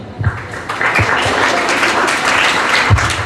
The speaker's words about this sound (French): Applaudissez, s'il vous plaît.